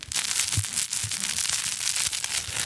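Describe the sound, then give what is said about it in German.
Continuous crinkling and crackling as a crinkly fabric crocodile baby toy is squeezed and kneaded, a dense rustle running steadily for a few seconds with no talking. “Ähm, dann haben wir noch das Knisterkrokodil.”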